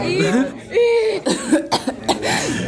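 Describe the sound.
A person up close hawks, drawing up phlegm with harsh throaty rasps and voiced grunts, then spits in a few sharp, wet bursts.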